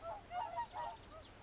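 Several honking, bugle-like whooper swan calls ring out in quick succession, moderately loud with a nasal tone, over a faint outdoor background with no talking.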